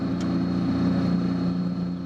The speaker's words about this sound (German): Knapp 20 Kilometer hinter Wittenberge quert dort die für Radfahrer und auch Autos geeignete Motorfähre Ilka die Elbe.